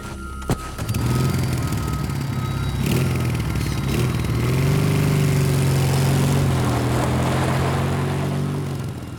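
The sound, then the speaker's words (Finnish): A sharp clunk as a motorcycle is kick-started, then its small engine catches and runs steadily, its low rumble rising in pitch partway through as it revs up before settling into a continuous drone. “Autojen valojen kaikottua polkaisin vihdoin pyörän käyntiin.”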